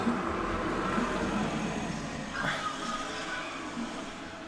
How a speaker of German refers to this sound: Auto.